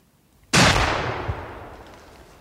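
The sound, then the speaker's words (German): A single loud shot from a hunter's rifle, fired at night at a group of wild boar in a forest thicket, cracks out from near silence, then a long reverberant tail rolls away and slowly fades, echoing through the whole forest and over a nearby housing estate. “Der Knall hallt durch den ganzen Wald und über die Wohnsiedlung hinweg.”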